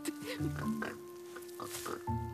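pig oinking

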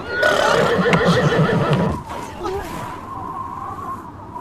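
horse neighing

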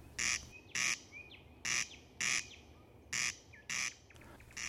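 corncrake rasping call

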